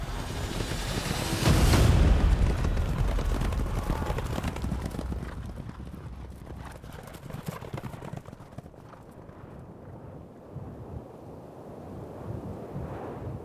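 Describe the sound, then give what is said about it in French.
Galloping horses thunder in a dense, rapid rhythm of hoofbeats as a king whips his horses and flees a battle, his army panicking and routing behind him, loudest in a low rumbling surge near the start, then continuing as a steady, rough drumming that gradually thins out. “Darius fouette ses chevaux et prend la fuite, entraînant un mouvement de panique derrière lui”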